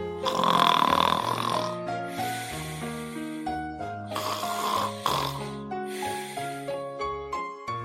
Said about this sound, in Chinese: 哼，真没礼貌！他竟然还打呼噜呢。